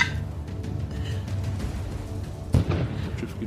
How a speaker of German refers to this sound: Und ihr hört es wieder surren von dieser Richtung. Und vor Deans Gesicht fliegt eine riesige Kanonenkugel vorbei und landet wieder hinter euch im Wasser mit einem riesigen Flatsch.